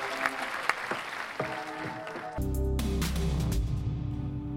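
A crowd applauds with a dense patter of claps for a couple of seconds, then a loud song with heavy bass and sustained tones starts and plays on.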